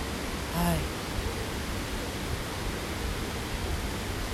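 A steady, full rush of flowing river water at Rairai Gorge in Akiu Onsen fills the whole stretch, constant like a stream pouring through a gorge, with a brief higher tone near the start.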